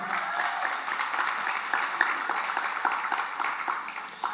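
Audience applause for a young man helping to set up a record player fills the whole stretch: a steady, dense wash of many hands clapping at an even level, with a few sharper individual claps popping out. No one speaks over it.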